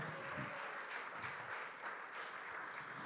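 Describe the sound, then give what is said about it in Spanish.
A church audience claps during a sermon, a dense crowd of overlapping hand claps at an even, moderate volume with no voices over it. “Dele un aplauso.”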